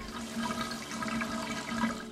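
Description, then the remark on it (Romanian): Water runs steadily from a faucet in the film The French Dispatch by Wes Anderson, a continuous rushing hiss with a faint low hum underneath, holding an even level for a couple of seconds with no voices. “În plus, duminică 3 octombrie la Arcub e programat The French Dispatch, ultimul film al lui Wes Anderson, din care sunt în măsură să vă ofer acum acest sunet de robinet curgând”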